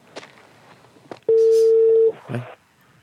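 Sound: telephone dialing tones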